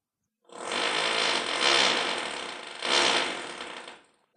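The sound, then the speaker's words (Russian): A steady, rattling mechanical drone of renovation work by upstairs neighbours in an apartment, like a power tool running continuously for about four seconds, swelling slightly twice before cutting off. No one speaks. “А вот соседи сверху начали работы не так давно и до сих пор их продолжают, в связи с чем мои студенты и я вынуждены нередко заниматься под назойливый саундтрек стройки.”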